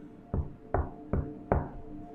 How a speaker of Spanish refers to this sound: Apago mi celular y escucho cómo golpean tres veces un mueble de madera